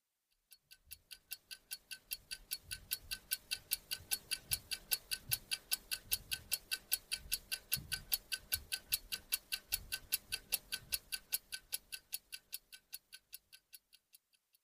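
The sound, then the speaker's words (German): A clock ticks steadily at a brisk, even pace, each sharp tick crisp, continuing alone for the whole stretch with no voices. “klingt nach einer Uhr”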